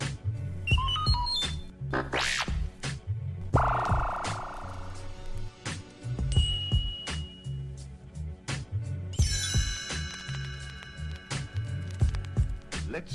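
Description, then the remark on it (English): Electronic computer chimes and warbling beeps, signaling a page turn in a read-along book, ring out over a busy, rhythmic synthesized backing, with a bright burst of shimmering tones near the end. “You will know it is time to turn the page when you hear the computer sound like this.”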